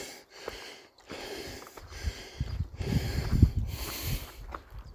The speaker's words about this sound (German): Vor allem, wenn eine gerade Linie auf diese Kuppe führt. Ich glaube, man kann mich auch keuchen hören.